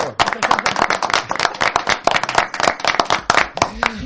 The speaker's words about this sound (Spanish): Vamos a dar un fuerte aplauso aquí en el estudio